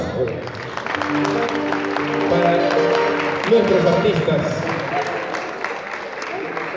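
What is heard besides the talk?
audience applause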